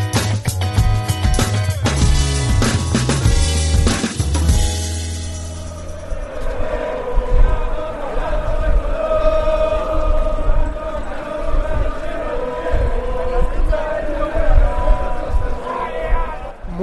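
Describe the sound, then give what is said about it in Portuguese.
A large crowd of football fans sings together loudly outdoors near the stadium, their sustained chant rising above a dense, noisy opening and carrying on steadily with a rough, massed roar underneath. “Aqui que tem o real ambiente de futebol, torcida cantando e haja gogó, né,”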